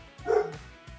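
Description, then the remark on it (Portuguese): A dog named Morelli lets out a short run of barks, one louder, fuller woof in the middle flanked by softer yips, with no talking. “O Morelli, o Morelli já quer saber quem é.”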